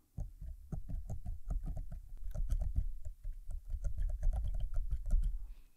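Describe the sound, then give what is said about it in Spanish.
Keys on a braille keyboard being pressed to type a short Spanish greeting, in quick, uneven bursts of soft clacks and dull thumps, continuing steadily for several seconds with no voices. “Yo escribiendo, voy a escribir Hola, coma, me llamo Manolo.”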